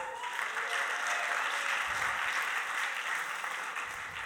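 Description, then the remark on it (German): An audience breaks into sustained applause after the speaker tells of the birth of his son two weeks earlier, a dense crackling wash of many hands clapping steadily at a loud, even level for the whole stretch, with no one speaking over it. “Du, ich muss nicht mir klatschen, ich muss meiner Frau klatschen.”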